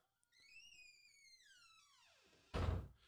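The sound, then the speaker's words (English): A door swings shut with a long, creaky hinge squeal that slides downward in pitch, ending in one loud thud. No one speaks. “Um, Shut the um, door.”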